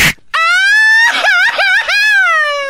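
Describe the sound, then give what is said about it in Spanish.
A single loud voice lets out a long drawn-out wail lasting a couple of seconds, its pitch wobbling and quavering in sobbing waves before trailing off. “No, déjenme gritar eso, está llorando a ver, dale.”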